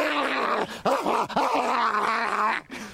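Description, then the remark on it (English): A man imitates a barking dog, letting out a loud, continuous run of gruff, growly woofs with several rising-and-falling bark shapes, then a brief pause and a final yelp. “Give us your best barking dog.”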